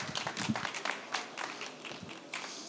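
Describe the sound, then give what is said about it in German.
A small audience claps for a few seconds to welcome a guest, a light, steady patter of overlapping hand claps, fairly soft and with no voices over it. “kleinen Applaus für die”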